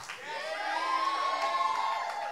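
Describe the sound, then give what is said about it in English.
A crowd cheers and whoops steadily, with high excited voices and shouts rising over a dense wash of noise and scattered clapping, sustained and loud throughout. “Give these guys a great round of applause.”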